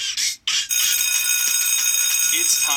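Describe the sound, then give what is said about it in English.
A school bell rings loudly and continuously, a bright metallic clanging that starts after two short bursts of noise and holds steady until the end. “for school, but you're not going to be saved by this bell.”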